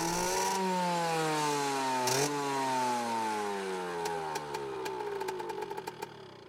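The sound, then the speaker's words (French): A red motorcycle enters a courtyard and stops in front of a man: its engine rumbles, pitch sinking steadily as it slows down, then settles into an uneven, ticking idle before cutting toward silence. No voices. “Une moto rouge pénétra dans la cour pour se figer devant lui.”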